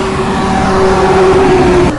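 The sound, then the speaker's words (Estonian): Loud highway traffic roars continuously on the Tallinn–Narva highway at the Loksa road junction in Estonia, with a steady engine drone running underneath the rush of passing cars. No one speaks. “mikrofon on nüüd avatud selle matkatee vast kõige lärmakama ja kõige liiklustihedama koha peal, see on äh, keset Tallinna-Narva maanteed Loksa tee juures, Loksa tee ristis, kui täpne olla.”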